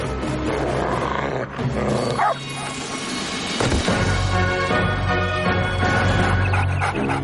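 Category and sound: animal, dog growling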